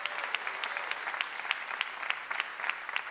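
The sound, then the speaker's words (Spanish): An audience applauds its deacons steadily, many hands clapping in a dense, bright wash with sharper individual claps popping out irregularly throughout, no voices standing out. “Denle un fuerte aplauso por esos diáconos, chispudos, esos diáconos.”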